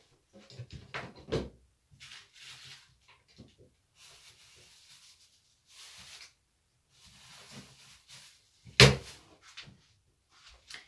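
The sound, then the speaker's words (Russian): Freezer and fridge doors opening and closing amid rustling and shuffling as pastries are moved from the freezer into the fridge and a chocolate bar is taken out, with a firm thump early on and another sharp clunk near the end, with no talking. “Так, я переложила пирожные из морозилки просто в холодильник и достала шоколадку.”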